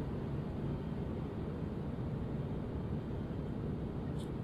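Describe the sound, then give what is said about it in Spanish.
Aircraft engines roar at full power in a steady, dense, low-heavy rumble that holds constant and loud throughout, as the plane climbs away from a partially snow-covered airstrip, with no voices or breaks. “Y abre la boca, pero no escuchamos nada, porque lo único que estamos escuchando son los motores a toda potencia.”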